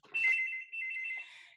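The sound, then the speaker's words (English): A telephone rings in two loud, sustained electronic bursts, a bright trilling tone with a brief dip between them, with no voices. “Excuse my phone ringing.”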